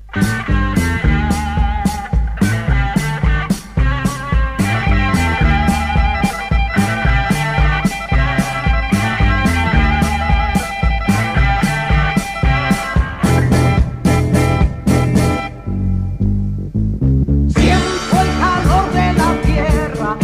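A loud rock song plays, with steady pounding drums and dense guitar chords, briefly thinning out near the end before crashing cymbals come back in.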